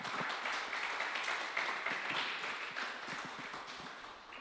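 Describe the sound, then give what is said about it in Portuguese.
An audience applauds the Lord during a sermon, a dense, steady wash of many hands clapping that holds at moderate loudness for several seconds before gradually tapering off. “Dá um aplauso ao Senhor aí, vai.”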